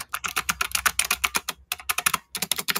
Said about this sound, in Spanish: Pero es porque es un teclado de PS88. Miren, aquí está para el ASMR. Qué bonito suena ese clic.